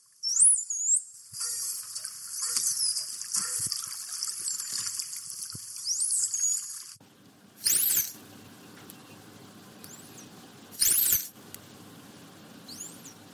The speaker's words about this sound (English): And you sent us a few of those signature whistles over. We'll have a listen to those now.